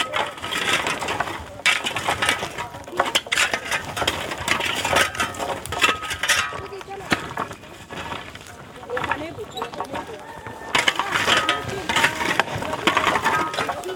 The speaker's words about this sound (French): est en train d'étaler les, cailloux pour garder euh, au centre le, comme un nid pour que les bougnats soient être à, l'intérieur